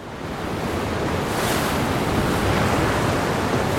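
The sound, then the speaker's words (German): Heavy storm surf crashes continuously against a sloop with roaring wind tearing its sail back and forth, a dense, loud wash of water and gusts filling the whole clip with no pauses or voices. “schlugen die Wellen auf die Schaluppe ein der Wind riss das Segel hin und her”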